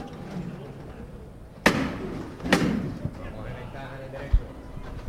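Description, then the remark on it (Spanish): Two loud, sharp knocks of a capataz's hammer on the large knocker of a Holy Saturday procession float as it lifts and passes under the lintel of the Puerta de los Palos, roughly a second apart, over a steady murmur of crowd voices. “Una levanta que ha hecho incluso que suene de nuevo el martillo.”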